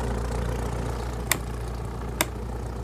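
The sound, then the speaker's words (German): A small airplane engine idles with a steady, low, rumbling drone as the plane is backed up a little on a short runway before takeoff, and two sharp clicks break through at intervals; no one speaks. “Es dauerte eine Weile, bis sein Vater sich mit den Anzeigen vertraut gemacht hatte, dann setzte er das Flugzeug ein wenig zurück, um die kurze Startbahn optimal ausnutzen zu können.”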